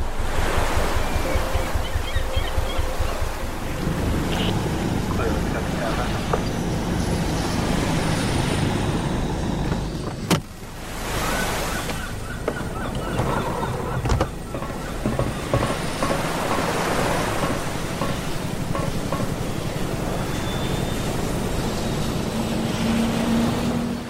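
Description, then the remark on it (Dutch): A steady, loud roar of a helicopter flying to an offshore grid switching platform in the North Sea, with a rapid low thumping of rotor blades at the start and a dense rushing noise throughout, with no talking. “Klim mee aan boord van de helikopter naar het MOG, Modular Offshore Grid, Elias schakelplatform in de Noordzee.”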